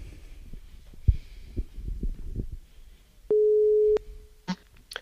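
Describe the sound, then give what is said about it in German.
A telephone ringing tone sounds once as a call is placed: a steady, mid-pitched electronic beep lasting under a second. Soft low thumps and rustling come before it, and a few sharp clicks follow. “Und ich würde mal vorschlagen, wir klingeln mal durch und fragen einfach mal, wie bei denen denn so die Stimmung ist.”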